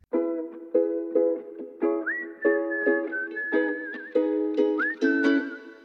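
An upbeat pop song intro plays: punchy, evenly spaced synth chords pulse in a steady rhythm while a bright whistled melody glides over the top, with no vocals yet.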